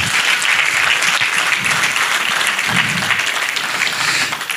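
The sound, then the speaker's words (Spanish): An audience breaks into sustained, loud applause for the Lord, a dense wash of many hands clapping steadily for several seconds before easing off slightly at the end. “Si usted quiere ese regalo, dele un aplauso al Señor fuerte.”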